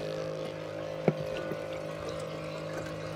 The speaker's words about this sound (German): möchte schauen, was in der unteren Schicht des Sees für Mikroorganismen leben und pumpt deshalb von dort rund 20 Liter Wasser nach oben.